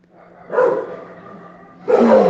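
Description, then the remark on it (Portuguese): Several dogs from a home kennel, along with dogs from the street, bark in two loud bursts separated by a stretch of softer, continuous yapping and whining. No one speaks. “É isso que dá ter um canil em casa, parabéns. 5 mil cachorro, mais os da rua.”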